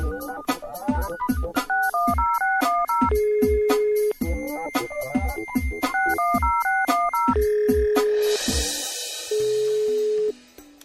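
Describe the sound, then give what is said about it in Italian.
Someone dials a telephone to call a friend: rapid electronic keypad beeps step up and down in a repeating pattern, broken by long steady ringing tones, with a brief burst of hiss near the end and no voices. “Fammi fare una telefonata.”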